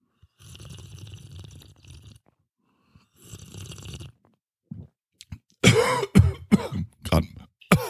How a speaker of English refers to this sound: choking on my beverage. This is why you tune in, right? Hear me cough. when I choke on my hot beverage, it's compelling, super sexy too.